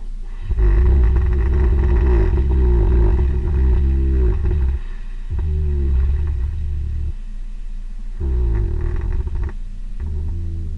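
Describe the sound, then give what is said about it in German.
An animal snores in slow, drawn-out breaths, a deep rumbling rasp lasting several seconds each, repeating about three times with brief pauses, loud with no voices. “es ist ein Schnarcher und zwar ein Schnarcher von einem Tier”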